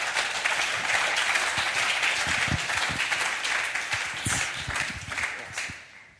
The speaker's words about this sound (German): Einen dicken Applaus bitte.